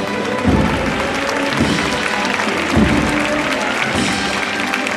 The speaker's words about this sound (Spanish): De hecho, el aplauso ha costado arrancarlo, ¿eh? se demuestra que muchas veces el público lo que aplaude es la subida de todo.